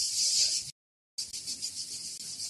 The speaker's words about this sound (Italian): Sentite le cicale?